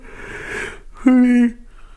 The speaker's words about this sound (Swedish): Oh, jag ska inte gäspa mer jag lovar.